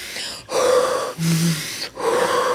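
Close, loud deep gasping breaths, three forceful airy pulls in a row separated by brief pauses, sharp and breathy with no talking.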